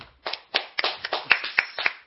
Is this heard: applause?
yes